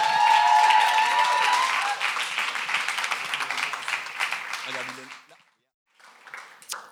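An audience applauds loudly as a guest joins the speaker, dense, steady clapping that gradually thins and fades over about five seconds, followed by a brief silence and then faint scattered sounds.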